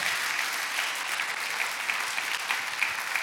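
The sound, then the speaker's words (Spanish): A church audience applauds for Jesus Christ together, a steady dense wash of many hands clapping at once, sustained and fairly loud throughout with no voices standing out. “Bueno, denle un aplauso a Jesucristo, al Rey de Reyes.”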